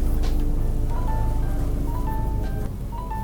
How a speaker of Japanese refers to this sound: 今日も公開録音って感じで外の音も聞こえてくると思いますがあすごいヘリコプター